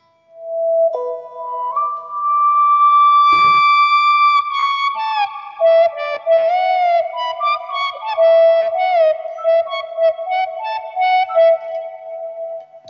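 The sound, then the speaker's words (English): A synthesizer patch imitating a recorder flute plays a breathy, pure-toned melody: a few long held notes, then a busier run of short, quick notes. It is moderately loud, with no voices. “Without because with this you can also create the kind of uh, like recorder flute kind of thing, which we all love a great deal.”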